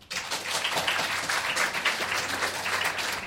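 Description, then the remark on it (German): Steady audience applause, a dense wash of many hands clapping at a fairly even level for a few seconds, with no voices on top. “Also, wir brauchen jetzt einen Applaus.”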